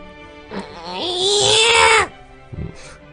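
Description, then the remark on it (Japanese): A person imitates a newborn baby's cry, voicing it like a large amount of water forcing through a thin tube: one strained, high-pitched wail that swells for about a second and cuts off sharply, followed by a brief quieter vocal sound. Fairly loud. “赤ちゃんの泣き真似をするときね。”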